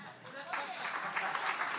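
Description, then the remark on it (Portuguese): A church audience breaks into steady, dense applause for Jesus after a brief moment of voices, the clapping swelling quickly and holding at a moderate level. “É uma boa hora para você aplaudir Jesus, né?”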